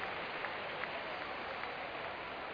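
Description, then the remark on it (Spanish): A basketball arena crowd at a Bilbao Basket game applauds steadily as injured player Roger Grimao is helped off by two teammates, dense overlapping claps forming an even, continuous wash of noise at moderate volume, with a few slightly sharper claps poking through and no clear talking. “Y toda la afición pues aplaudiéndole y deseando que se recupere lo antes posible.”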